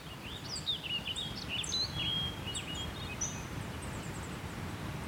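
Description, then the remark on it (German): Several birds chirp and twitter in overlapping, high-pitched calls in the Botanical Garden in the middle of Vienna, over a soft steady outdoor rumble. No one speaks. “Dieses süße Vogelgezwitscher ist unsere heutige akustische Kulisse.”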